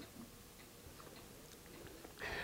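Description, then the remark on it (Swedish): Faint, steady ticking of wall clocks in a home in Lövö, soft regular clicks close together, ending with a brief rush of noise. “Du har ett trevligt hem här i Lövö med klockor som tickar på väggarna”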